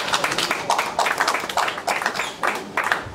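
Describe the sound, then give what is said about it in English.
A crowd applauds the record-breaking gate achievement of Amanda Serrano and Jake Paul, a steady wash of many hands clapping with small swells in loudness throughout, sustained, with no voices standing out. “I'd like to give a round of applause to Amanda, Nina, and Jake for that achievement.”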